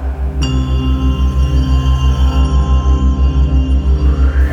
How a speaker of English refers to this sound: And when you hear the sound of this bell